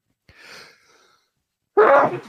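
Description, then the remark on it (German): A single loud sneeze: a soft breathy intake first, then a brief pause and a sharp, forceful burst. “Gesundheit.”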